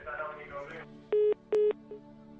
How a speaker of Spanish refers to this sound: Los pitidos del teléfono. voy a pulsar la tecla.